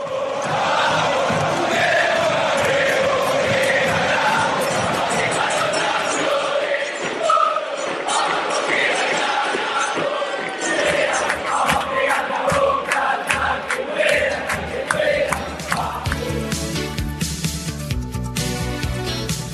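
A large crowd of football fans sings a chant together, loud and sustained with a steady rhythmic pulse, many voices blending into one roaring melody that continues throughout.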